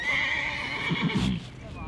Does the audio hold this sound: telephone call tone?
no